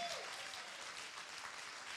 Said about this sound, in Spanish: En el nombre de Jesús, si usted lo cree, denle un aplauso fuerte a Jesucristo.